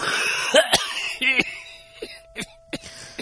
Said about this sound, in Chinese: 可就在我走到一楼楼梯口的时候，居然听见有人咳嗽，分不清是男是女，反正就一直是在咳嗽的。我刚才听也听到了一阵咳嗽，嗯 嗯， 我当时一愣，就以为正好有人经过，但是仔细一听才发现，那个咳嗽的声音竟然是从储藏室里传出来的。